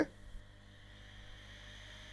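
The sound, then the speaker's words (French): A smartphone's small internal cooling fan whirs steadily at low volume, a faint continuous hum with a thin high whine, following a brief click at the very start. “Là, c'est le ventilo, ok”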